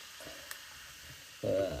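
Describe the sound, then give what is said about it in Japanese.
A freshly made carbonated highball fizzing with a soft, steady crackle of bubbles, a single faint tick early on, then a louder, fuller bubbling surge near the end. “シュワシュワしてる”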